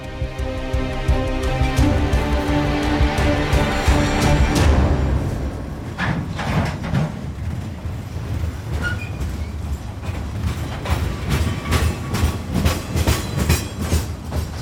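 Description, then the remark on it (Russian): The last Ukrainian train leaving Donetsk in 2014 rolls steadily along the rails with a loud, rhythmic clickety-clack, starting with a heavy low rumble and tonal hum before settling into repeated wheel clatter. No one speaks. “Но начинаем мы издалека, с последнего украинского поезда, уходящего из Донецка в 2014 году.”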